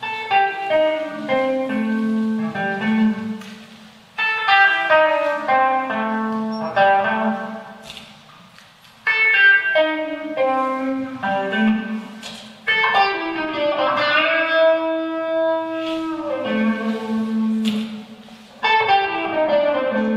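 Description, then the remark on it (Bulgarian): A musical instrument plays a run of clean, sustained notes in repeated phrases, each group separated by brief gaps, with shifting tone color from phrase to phrase, loud, no voices. “Сега ще направя кощуното, ще накарам този тон музикант да ви свири чисти ноти с различни темпи.”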